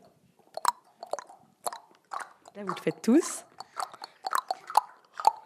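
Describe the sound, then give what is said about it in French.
Hollow, pitched pops from children in a classroom tapping their fingers on puffed-out cheeks to imitate rain patter in quick, irregular bursts, like scattered raindrops, with a brief spoken remark and a squeaky vocal sound mixed in. “Quand vous faites ça, là, sur les joues, on dirait vraiment de la pluie.”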